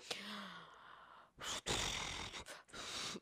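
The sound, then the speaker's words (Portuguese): A person imitates a woman's loud snoring with a few rough, breathy inhales and exhales, each burst harsh and noisy with brief pauses between them. “E até pra roncar, ela, ela, ela é barulhenta. Ela é. faz assim, ó.”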